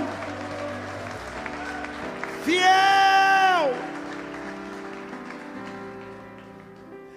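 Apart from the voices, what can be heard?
audience applause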